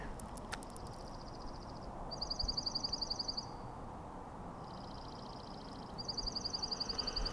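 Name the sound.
birds calling loudly outdoors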